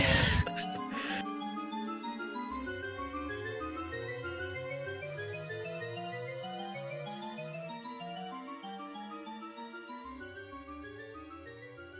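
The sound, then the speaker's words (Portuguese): Looping synthesized music from the endless staircase in the video game Mario 64, with an endlessly rising, spiraling tone pattern over a repeating stepped bass line, steady and moderately loud throughout after a brief burst at the start. “Termina com o som daquela escada infinita do Mario 64.”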